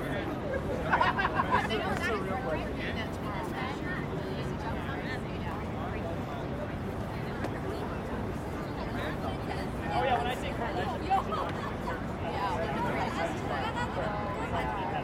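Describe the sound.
Continuous chatter of tourists, many overlapping voices, fills busy Times Square, a steady hubbub with occasional voices briefly standing out above the babble.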